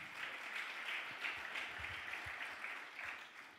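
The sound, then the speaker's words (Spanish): An audience bursts into another loud round of applause for a father, dense steady clapping with a few louder claps standing out, holding at a fairly even level and easing off slightly at the end. “Dele otro aplauso fuerte a papá.”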